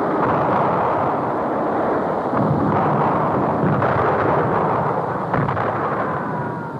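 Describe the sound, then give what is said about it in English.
Relentless gunfire roars without pause, a dense, loud wall of overlapping shots and blasts with faint sharper bursts cutting through the steady rumble. No voices can be heard. “What I, I remember very clearly is that very soon the noise was unbearable. It was like hearing a bomb exploding, but continually.”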